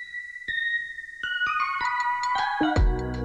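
A short electronic intro jingle of bright, bell-like synth tones stepping through a rising melody, then swelling into a fuller, louder chord with bass at the end. No voices are heard.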